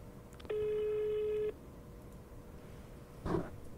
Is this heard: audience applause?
no